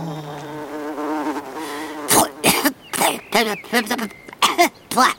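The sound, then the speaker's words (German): A person coughs and sputters in a rapid series of harsh bursts after a stretch of buzzing, strained vocalizing, having inhaled and swallowed something while deep-breathing during forest bathing. “Ich habe irgendetwas eingeatmet und verschluckt.”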